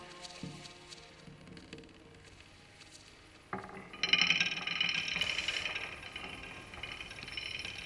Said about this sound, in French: C'est le vent.